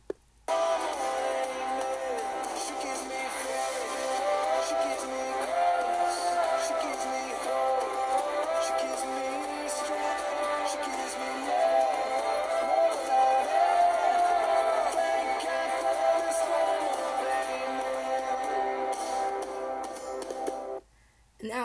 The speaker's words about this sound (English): I'm actually going to play the clip of the song that I heard and I recorded in the moment.